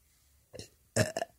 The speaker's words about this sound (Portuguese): Dessa vez eu gravei meu arroto, mas não foi um arroto tanto, tão bonito quanto o do episódio 1.